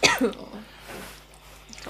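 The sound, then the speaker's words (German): A harsh cough bursts out twice in quick succession, then trails off into quiet, breathy noise with no talking. “der Husten fängt wieder an.”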